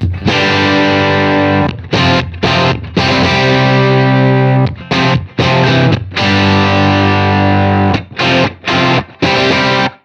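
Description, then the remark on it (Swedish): Loud, heavily distorted electric guitar chords ring out alone, with a thick, bass-heavy tone as the amplifier's bass control is turned up to maximum, sustaining for a few seconds at a time and broken by short choppy gaps. “Spela lite och så, så åker jag med basen. Nu är det på max bas då.”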